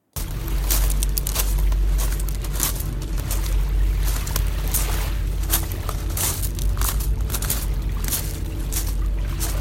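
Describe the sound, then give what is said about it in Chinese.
Footsteps crunch steadily across a pebble beach on an island while seawater washes and rattles over the stones, with a constant low rumble of surf filling the background and no voices. “这就是走在海边，我的脚步声和海水打在就是石子滩上的声音。”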